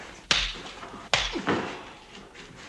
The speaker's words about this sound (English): He played Virgil Tibbs in The Heat of the Night, a man righteous enough to slap in return the white politician who had slapped him.